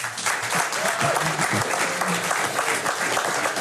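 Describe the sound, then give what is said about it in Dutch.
Loud, sustained applause from a completely full hall at Nieuwspoort in The Hague, at a live broadcast of Boekenstein in de Wijk, a dense continuous patter of many hands clapping at once, steady throughout with no voices standing out. “En u hoort het, het is een helemaal volle zaal.”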